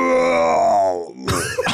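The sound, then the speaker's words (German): A person lets out a long, drawn-out groan that slides downward in pitch, like a drowsy bear waking from hibernation, then ends in a rough, breathy exhale. It is fairly loud. “so wie du es gerade gemacht hast, klingt es so, als wenn Helmpeter gerade aus dem Winterschlaf erwacht”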